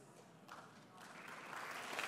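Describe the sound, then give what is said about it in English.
A light smattering of audience applause, soft and diffuse, with scattered claps swelling slightly toward the end of the short burst. “Smattering of applause for Lion, Lion Eyes.”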